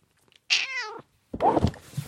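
A female cat meows twice while being stroked: first a clear, drawn-out meow with a rising-falling pitch, then after a short pause a rougher, breathier second call. No one speaks.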